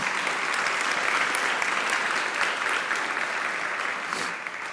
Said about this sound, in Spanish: Dáselo fuerte, claro que sí. Dar un fuerte aplauso.